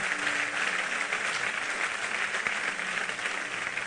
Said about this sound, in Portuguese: Pode aplaudir ele aí forte pra caramba.